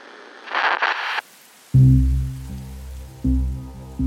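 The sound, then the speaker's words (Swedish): A brief hiss of rain patters for about a second, then cuts out and gives way to a loud, low droning tone that swells twice. “de rör sig sakta framåt i regnet och mörkret.”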